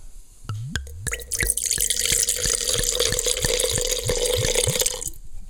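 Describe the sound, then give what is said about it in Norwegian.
White Rioja wine, a Spanish blend of Viura, Malvasia and Chardonnay, is poured into a large glass: a steady splashing stream with a rapid series of hollow gurgling glugs, roughly three per second, lasting about five seconds, with no talking. “Så da må vi helle glasset.”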